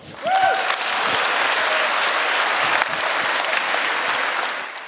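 An audience at a political party congress breaks into steady applause after a speech, a dense wash of clapping that holds at an even level for several seconds before starting to taper off, with a brief whistle near the start.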